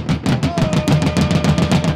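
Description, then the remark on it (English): A fan in the ballpark bleachers pounds a drum in a fast, steady beat, banging faster to throw off the batter, roughly a dozen loud, booming hits in two seconds, over a constant murmur of crowd noise with no clear talking. “And then try and throw off the batter by banging faster”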